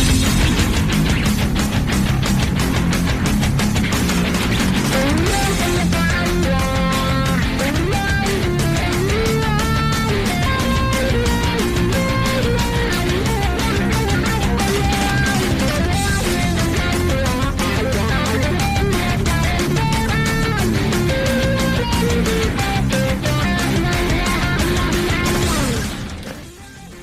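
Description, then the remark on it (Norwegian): Loud, energetic video game soundtrack music from Super Mario 3D World, with driving percussion and bright melodic lines layered over a dense backing, playing steadily with no talking before it trails off at the end. “Det var musikk fra et spill som jeg har eh, spilt.”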